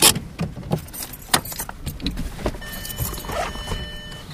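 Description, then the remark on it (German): A car rolls over a bumpy cobblestone road through Priesteblich, a village on the Mulde river, its low rumble broken by repeated sharp rattles and knocks, with a faint whine rising near the end. No one speaks. “Sie holpert über eine Kopfsteinstraße durch Priesteblich, ein Dorf an der Mulde.”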